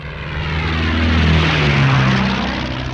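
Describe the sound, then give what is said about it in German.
A propeller airplane of an aerobatic flying troupe drones overhead during a wingwalking show, its steady engine hum swelling and then easing off slightly, with a low, throbbing buzz and shifting tonal whine. No voices. “Mit einer Kunstfliegertruppe timmelte er durchs Land und gab Vorstellungen als Wingwalker, Während des Fluges stand er auf der Tragfläche einer Maschine und winkte dem Publikum zu.”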